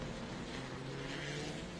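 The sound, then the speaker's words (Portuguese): A stock race car, the Caravan of Kleber Silva, leader of the Street category, roars steadily as it accelerates along the track, a continuous droning growl with a strong low hum, holding at an even, fairly loud level without any voices. “E aí ele vai seguindo na pista, vai acelerando.”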